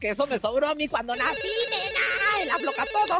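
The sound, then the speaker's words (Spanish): A phone rings with a melodic, warbling ringtone that plays continuously and fairly loudly, while a woman talks over it; it is the first incoming call to a call-in guessing game. “Ya tenemos la primera llamada. Vamos a contestar.”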